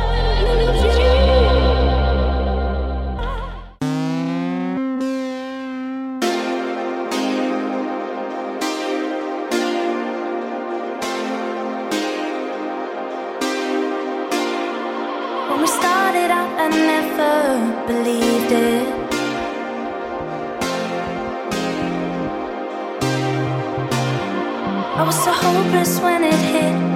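An electronic dance track influenced by 1980s Chicago house, using TR-909 drums, opens with a short, bass-heavy intro, then drops into a steady, driving beat with crisp, regular percussive hits under bright, sustained synth chords that keep building in energy.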